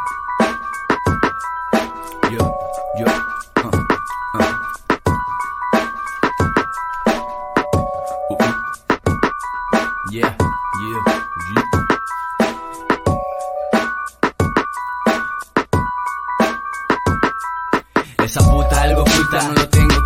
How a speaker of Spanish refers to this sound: Eh, paz, y ahí van a guachar una rola de mi homie